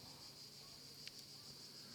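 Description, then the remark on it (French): Cicadas drone in a steady, unbroken high-pitched buzz, heard quietly, with a single faint click partway through and no voices. “On peut écouter les cigales aussi, juste deux secondes, tiens, on peut une pause.”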